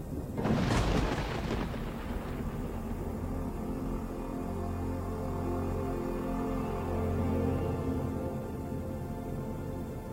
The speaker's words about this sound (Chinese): 一九八一年秋季里的一天，暴风雨侵袭了中国陕西的关中平原，一座佛塔在暴雨中轰然倒塌半边